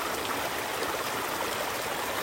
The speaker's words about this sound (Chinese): 让流水冲刷吧。这里面就是有一些韵律，听流水的韵律。韵律里面也有音乐。